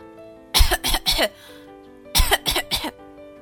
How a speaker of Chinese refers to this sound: 如果咳嗽时，我们应该怎么办呢？在细菌跑出来之前，赶紧捂住嘴巴，像这样，或者这样，或者甚至是这样。